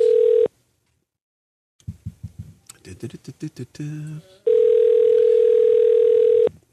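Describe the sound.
A steady electronic ringback tone of an outgoing phone call placed by radio hosts to a listener sounds twice: a brief tail at the start, then a pause and a voice speaking, followed by another full two-second ring.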